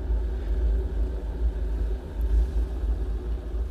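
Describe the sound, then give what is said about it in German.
An electric kettle heating water for tea, giving a steady, fairly loud low rumble with a hissing wash above it that churns on without a break for the whole stretch, with no voices. “Der Wasserkocher hat das Wasser jetzt richtig schön heiß gemacht.”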